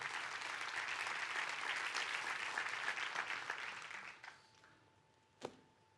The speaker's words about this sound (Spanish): Le puedes dar un fuerte aplauso a Dios por eso.